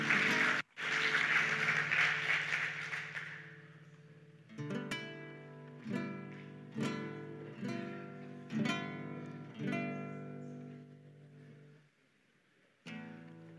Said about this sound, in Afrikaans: Kom ons gee vir hom 'n lekker hande klap. Applaus.